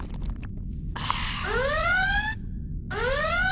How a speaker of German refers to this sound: Was ist das? Roter Alarm!